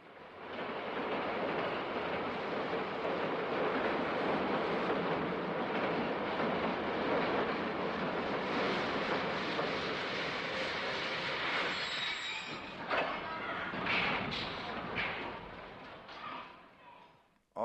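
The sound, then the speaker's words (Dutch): A subway train comes out of a tunnel and roars along with a dense, steady rumble, then slows as wheels screech and squeal toward the end, the noise thinning out as it stops at 135th Street. “De subway komt de tunnel uit en stopt bij de 135e straat.”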